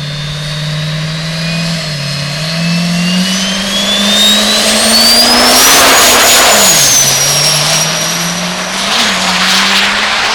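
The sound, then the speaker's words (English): A regular-cab diesel pickup truck with an LB7 engine drones loudly on the starting line of a drag strip as a rising turbo whistle spools up, then the engine roars and surges as the truck launches down the track, with the whine continuing throughout. No one speaks. “It's a regular cab LB7. Spooling up on the line.”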